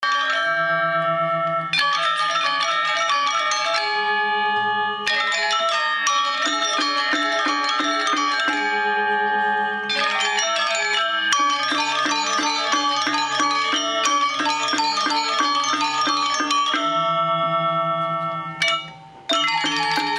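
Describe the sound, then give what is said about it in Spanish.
Balinese gamelan ensemble playing loud, bright, shimmering metallic tones in rapid interlocking patterns over deeper sustained gong notes, continuous and energetic throughout with no voices. “Entonces vamos a escuchar ahora un gamelán de Bali para ver si realmente es más espectacular, brillante y si tiene más energía que el, que, que el anterior que acabamos de escuchar de Java.”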